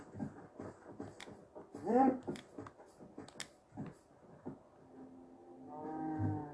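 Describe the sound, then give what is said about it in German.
A cow in a video game lets out a low, drawn-out moo near the end, following a stretch of quiet talking and game sounds. The moo is fairly clear, at moderate loudness. “Da ist noch eine Kuh.”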